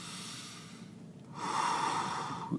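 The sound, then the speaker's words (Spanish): A single slow, deep breath drawn in through the nose, a soft airy rush that swells about halfway through and holds steady to the end, with no talking. “empiezas quiero que empieces, tomas una, respiración, tomas una respiración”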